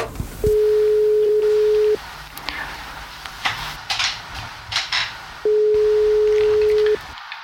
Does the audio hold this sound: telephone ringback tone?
yes